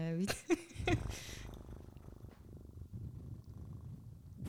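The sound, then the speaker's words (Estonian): Someone blows and rumbles right into a microphone, imitating a cat's purr: a steady low fluttering that runs for several seconds after a few brief vocal noises at the start. “ma hakkasin mikrisse puhuma, see ei, ei, nii ei lähe.”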